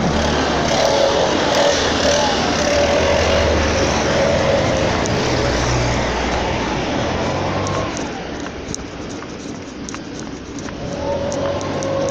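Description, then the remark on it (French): Leaf blowers running outdoors among autumn leaves: a loud, steady engine roar with a thin whining tone on top. It eases off briefly toward the end, then the whine rises again. No one speaks. “Il y a des feuilles, des souffleuses.”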